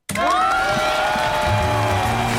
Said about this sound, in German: Da muss ich richtig klatschen.